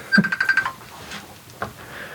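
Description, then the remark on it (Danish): A Messenger incoming call ringing tone: a quick run of five or six short, bright electronic beeps in the first half-second, fairly loud, followed by faint background rustling. “Åh, oh, ringer. Messenger samtale.”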